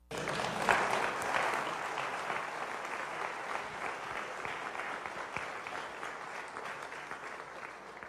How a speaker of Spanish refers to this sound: Dele palmas al Señor.